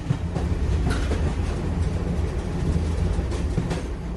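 A train rolls steadily along the rails, a continuous low rumble with faint rhythmic clacking from the wheels, fairly loud with no voices.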